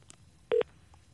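A single short telephone keypad tone beeps once, clear and steady for a fraction of a second, over a faint background hum, with no voices, as a phone number is dialed to call someone.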